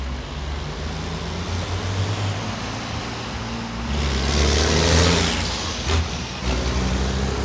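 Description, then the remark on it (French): Racing truck engines, set further back than in the original tractor units, rumble and rev continuously at a race track, a deep steady drone that swells into a louder, brighter roar midway before settling back. No one speaks. “Il y a du beau camion quoi. Et on voit à quel point où ils ont poussé vraiment le délire de la course à fond.”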